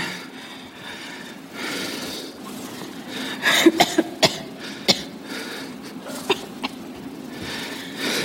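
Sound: person coughing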